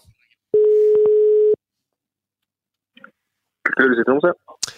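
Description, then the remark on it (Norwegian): A loud, steady telephone busy tone drones for about a second right after a person in Tromsø, Norway, hangs up on the call, then silence, followed by a man speaking briefly. “Og eh, jeg får si det sånn, de Tromsø-folkene, da, eller peisene, de var ganske kjappe med å legge på.”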